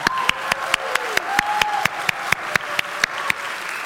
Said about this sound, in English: Would you put your hands together and just thank everybody for their faithful work for Vacation Bible School?